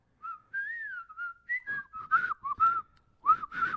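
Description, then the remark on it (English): A person whistles a short hip-hop melody close to the mic, clear and tuneful at first, then turning breathy and choppy in quick bursts. No talking is heard. “Sorry, I missed the whistling.”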